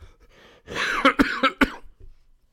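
A short, forced-sounding burst of coughing up close: a rough, breathy hack followed by three or four quick, sharp coughs in a row, then quiet.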